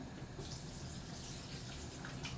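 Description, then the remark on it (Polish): Cold water is poured in a circular motion over pasta in a sieve, a continuous splashing rush that stays fairly loud throughout, with no one speaking. “I teraz już delikatnie przeleję sobie zimną,”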